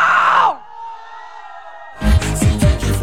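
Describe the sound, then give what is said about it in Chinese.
A loud half-second burst of screaming from a club crowd of about a thousand people, answering the host, cuts off into a held, ringing tone, then pounding club music with heavy kick drums comes in. “晚上全场的好朋友，我想听一下一千人的尖叫声，有吗？”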